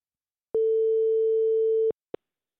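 A single steady ringback tone from an outgoing phone call sounds for over a second, followed shortly by a brief click. No one speaks.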